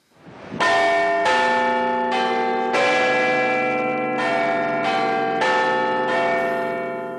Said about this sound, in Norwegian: Det er første gang på 60 år at klokkene i Big Ben kimer utenom sine faste tider. Den gang, i 1952, var det i anledning begravelsen til kong Georg 6. Nå er anledningen muntrere. Det er første dag av de 30. olympiske sommerleker.